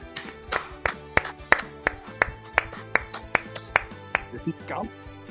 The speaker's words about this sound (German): zwar mit gemeinsamer Gänsehaut und noch einmal gemeinsamem Applaus.